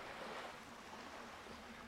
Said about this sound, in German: Sie liebt es, am Wasser zu spazieren, den warmen Sand unter ihren Füßen zu spüren und dem Rauschen des Meeres zu lauschen. Es hilft ihr, die Sorgen hinter sich zu lassen.